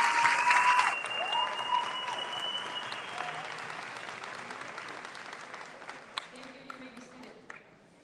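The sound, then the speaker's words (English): A crowd applauds steadily for graduating seniors of the class of 2023 who received gold and silver honors, a dense patter of clapping that starts loud and gradually fades over several seconds, with a few sustained tones and scattered claps trailing at the end. “Please give them a big round of applause for their accomplishments.”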